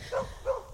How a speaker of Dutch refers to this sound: Ik loop nu ook langs een hondenkennel die bij ons in de buurt zit, dus excuus voor de achtergrondgeluid.